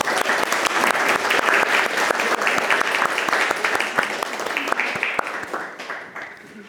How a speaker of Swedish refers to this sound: Jag tycker att ni borde dra en riktig applåd. Jag ska göra det i alla fall.